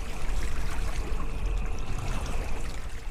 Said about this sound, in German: Tom liebt den Klang der Wellen. Im Sommer hört er ihn jeden Tag, wenn er auf dem Wasser des Bodensees unterwegs ist.